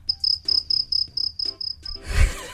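Crickets chirp in a steady pulsing rhythm, about nine evenly spaced bursts of high trilling, fairly close and clear, before a low rumbling noise swells at the end.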